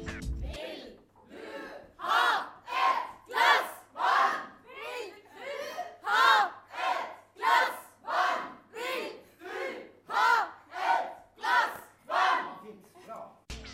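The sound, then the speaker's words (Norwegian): An improv theatre audience warming up before the show cheers and chants in unison, shouting loud rhythmic bursts about once a second, roughly a dozen in a row, with no other talk. “Og siden publikum er en del av showen, så er det selvfølgelig viktig med litt publikumsoppvarming.”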